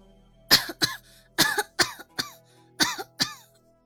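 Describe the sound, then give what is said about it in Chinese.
A series of light, dry coughs from someone lying in bed, around eight short bursts in uneven clusters, each a sharp breathy hack that quickly fades, with no phlegm sound and no talking between them. “床上还是轻咳了两声。”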